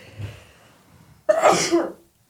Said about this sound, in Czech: mi se chce kejchnout. Tak si pšikni. Pardon, nelekněte se.